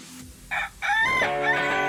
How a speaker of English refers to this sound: Roosters crow in the morning as they have their own internal alarm clock that helps them anticipate sunrise. They need to know when the sun will rise so they can get a head start on their daily chase for food and defend their territory.